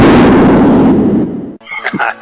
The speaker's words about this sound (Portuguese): vamos apresentar o, o sampo de explosão aqui.